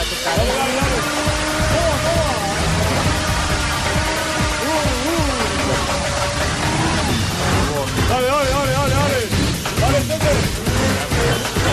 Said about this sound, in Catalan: pots unir batucada i motor de moto?